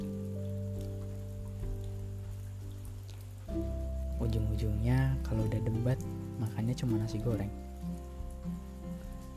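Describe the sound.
Steady rain falls outside, hissing throughout in a soft, even patter that never lets up, with a low humming drone underneath and a person talking over it for the second half.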